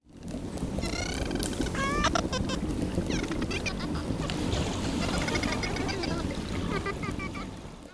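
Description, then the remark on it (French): Rapid underwater clicks and buzzing pulses of dolphin echolocation, made with their phonic lips, mixed with squeaky, rising whistles, heard over a steady rushing noise, continuous and fairly loud for the whole stretch with no talking. “Alors les sons sont un peu différents de ceux d'une chauve-souris du coup, mais là on entend aussi des sons audibles.”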